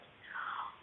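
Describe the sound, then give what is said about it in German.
A brief, soft, wet chewing and mouthing sound from a six-month-old teething baby, lasting about half a second, quiet with no talking. “Ihr hört im Hintergrund mein kleines Baby.”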